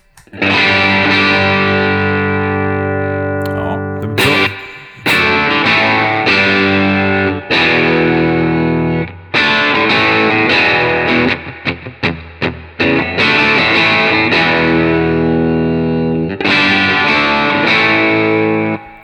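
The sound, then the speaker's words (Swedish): Overdriven electric guitar with a crunchy, tweed-style tone, gain at about 11 o'clock and volume straight up, loud sustained chords with a fizzy top, growling mids and a hint of flubbiness in the bass, restruck every few seconds with brief choppy stabs between them. No talking. “Lite tweedigt, eh, det här lite frasiga ja, på toppen.”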